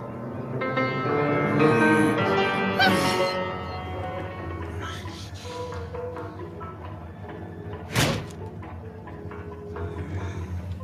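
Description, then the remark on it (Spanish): A piano crashes down with a loud, jangling clash of strings that rings on and slowly fades, followed later by a sharp thud. “Y es un piano, no es un drawer, no es una cómoda.”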